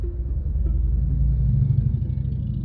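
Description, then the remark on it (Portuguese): A deep, throaty Harley-Davidson motorcycle engine rumbles loudly and steadily for a few seconds as the bike passes by, its low pulsing growl swelling slightly midway, with no voices over it. “Vocês ouviram o ronco dessa moto? Um cara passou aqui com uma motona Harley Davidson braba.”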